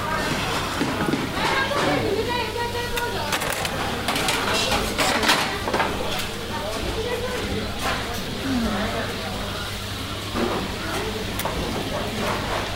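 Busy underground food court ambience: a steady wash of overlapping crowd chatter, sharp clinks and clatter of dishes scattered throughout, and a constant low mechanical hum underneath.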